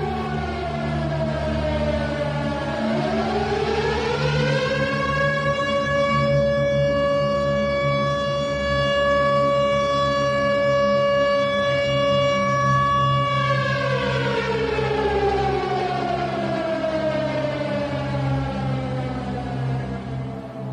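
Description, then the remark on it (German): An original World War II air raid siren from Kassel loudly winds up, holds a long steady wailing tone, then slowly winds back down, sounding alone with no voices for about twenty seconds. “Das ist die Originalsirene aus Kassel. Fliegeralarm.”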